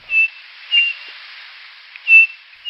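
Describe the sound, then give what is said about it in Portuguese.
A saci, a bird found mostly in forests, gives clear, pure whistled notes, high and thin, repeated in a slow irregular series of about four calls with short pauses between, without any talking. “E por fim, uma ave que é encontrada mais nas matas. O nome dela é saci.”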